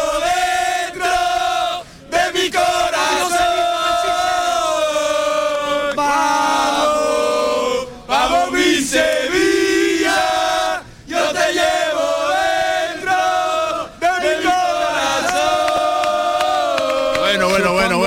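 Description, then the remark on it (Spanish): A large crowd of Sevilla football supporters chants "Vamos, vamos Sevilla" loudly in unison outdoors before a match, their sung rhythmic chorus filling the central square in Eindhoven, with brief pauses between phrases before the chant surges again. “es la prueba, la prueba más que palpable, Javier, de que la gente está viviendo con muchísimo entusiasmo la previa de este partido aquí en esta plaza central”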